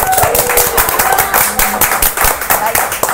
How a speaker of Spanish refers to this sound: Y bueno, un aplauso para ustedes, para todas, saludos.